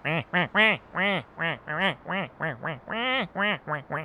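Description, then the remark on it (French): A duck character in a fighting video game, one that throws chains, quacks rapidly and loudly, about a dozen nasal quacks in a steady, bouncing rhythm with no talking over them. “mais pourquoi un canard”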